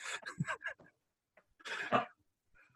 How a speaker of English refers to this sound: Thank God. You gave me the Rona. I'm coughing now.